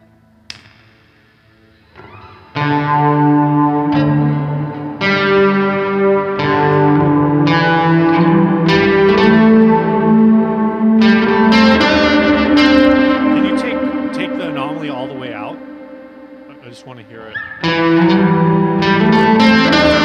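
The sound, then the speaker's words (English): An electric guitar run through effects pedals, including a volume pedal and a drive, produces swelling, distorted tones that bend and glide, imitating eerie whale calls, with sustained notes fading in and out over about twenty seconds. “for whale sounds. You know, you have a volume pedal in there and a drive or something.”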